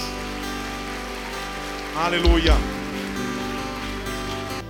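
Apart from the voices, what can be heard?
audience applauding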